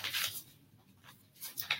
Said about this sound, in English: Uh, let me get a piece of paper right here. Let me, let me see right here.